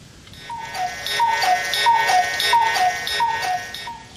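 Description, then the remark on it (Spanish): A cuckoo clock sounds its two-note falling call about six times in a steady rhythm over a busy mechanical ticking, fairly loud, with no one talking. “Faltaba que se despide el pajarito cucú.”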